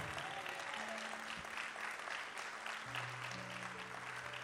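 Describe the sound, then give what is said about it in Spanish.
A church audience applauds during a sermon in January 2023, a dense, steady wash of clapping that holds at an even level throughout, with a few low, sustained keyboard notes held underneath. “Solo el que lo cree puede aplaudir.”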